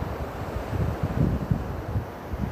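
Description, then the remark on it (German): Steady, broad wash of sea surf, a continuous low rumbling hiss with gentle surges, heard alone without any voices. “Und während du nun schon das Meeresrauschen hörst”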